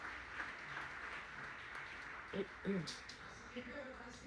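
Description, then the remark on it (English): A church audience applauds for the Lord during a sermon on the resurrection, a dense, steady wash of many hands clapping at moderate loudness, with a few brief voices rising through it partway. “Give an applause to the Lord, please.”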